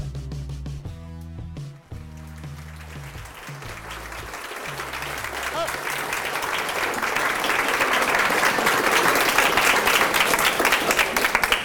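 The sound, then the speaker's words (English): An audience bursts into sustained applause, a dense wash of many hands clapping that swells louder over several seconds, with low musical tones briefly sounding underneath at the start. “I do that so you clap longer.”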